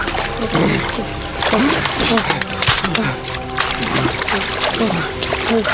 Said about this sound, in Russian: Не раздеваясь, парни входят в озеро.